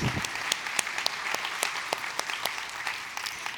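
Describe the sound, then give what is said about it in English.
A church audience claps steadily, many hands blending into a dense crackle with a few sharper individual claps standing out, sustained at an even loudness for several seconds with no one speaking. “Yeah, let's clap for that.”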